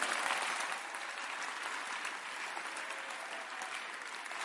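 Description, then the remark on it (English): An audience applauding for Jesus, a dense, steady wash of many hands clapping at once, sustained evenly for several seconds with no voices standing out. “Clap for Jesus.”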